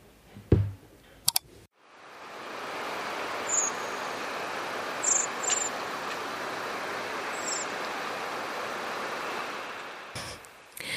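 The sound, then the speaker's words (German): Short, high-pitched bird calls ring out a few times over a steady rushing background like surf or wind; one of them comes as a quick double call, two notes back to back. “Dieser Ruf wird relativ oft gleich zweimal hintereinander gereiht, manchmal sogar noch öfter.”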